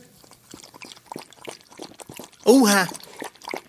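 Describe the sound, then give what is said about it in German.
Abby, one of a police dog handler's two service dogs, thirstily laps water from a bowl with soft, rapid, wet splashes, while people talk quietly and one voice lets out a short, loud exclamation partway through. “Abby hat aber einen großen Durst.”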